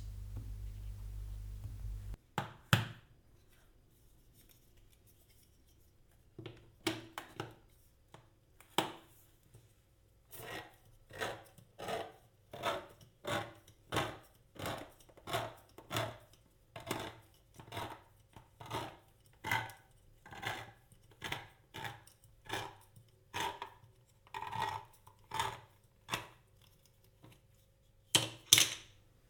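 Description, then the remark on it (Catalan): Kitchen scissors snip cooked duck leg meat, cleaned of skin and bone and taken from a tin, into small pieces in a steady series of crisp, sharp cuts, about two per second, with a soft low rumble underneath and no talking. “enllestides les albergínies, anem per l'ànec, obrirem la llauna, n'extraurem les cuixes, reservarem el greix per altres preparacions i netejarem cada cuixa de pell i os i la tallarem a tisora a bocins petits.”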